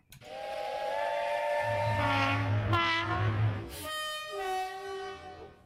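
A train horn blares in sustained harmonic blasts, shifting pitch over a low rumble, followed by a brighter whistle-like tone near the end; loud, with no talking.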